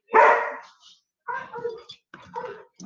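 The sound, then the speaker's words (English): Three dogs bark: one loud, harsh bark opens, then after a short pause a rapid, uneven flurry of smaller barks and yips follows, overlapping. “Now all three of them barking, so I apologize.”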